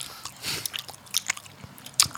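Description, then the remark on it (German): Close, wet chewing with sharp lip smacks and small crunches, irregular bursts repeating over a couple of seconds, loud and right at the microphone with no talking. “Ja, es ist natürlich jetzt äh, sehr unangenehm, ins Mikrofon zu schmatzen.”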